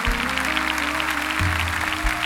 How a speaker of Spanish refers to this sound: Se merecen este aplauso, ¿verdad?